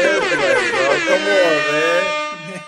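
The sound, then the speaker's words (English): A loud siren sound effect blares for about three seconds, a buzzy, harmonic-rich tone with a slightly wavering pitch that holds steady before trailing off at the end. “I need, I need the, uh, the sirens.”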